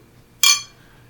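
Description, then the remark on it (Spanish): A single bright clink of beer glasses touching in a toast, fairly loud, its ringing tone fading within a fraction of a second against a quiet background; the glasses hold a very clear Belgian-style wheat beer. “Salud. Salud.”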